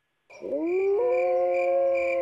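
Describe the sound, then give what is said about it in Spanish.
A wolf howls in one long, sustained note that swoops upward at the start and then holds steady, loud with nothing else around it. “¿Es un documental sobre lobos?”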